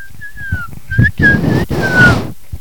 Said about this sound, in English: Five months later, everyone was working on the farm whistling while doing work.